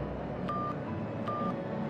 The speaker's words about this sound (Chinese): 这么持续了一会儿，艾木拿起手机拨通了楚萧的电话号码。